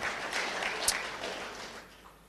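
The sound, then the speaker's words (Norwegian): A church audience applauds its leaders and volunteers with steady, dense clapping that holds fairly even throughout before thinning slightly toward the end, with one sharper clap standing out partway through. “Vi gir hverandre en skikkelig applaus faktisk for det, for det er, det er veldig, veldig bra.”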